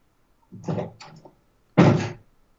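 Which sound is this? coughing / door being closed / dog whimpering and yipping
door being closed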